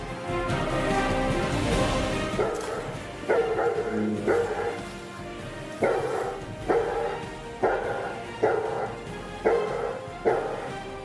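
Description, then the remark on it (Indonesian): Several dogs bark noisily and repeatedly, a chaotic overlapping chorus with sharp, loud barks recurring every second or so. “Tiba-tiba saat pengejaran terdengar riuh suara anjing yang menggonggong.”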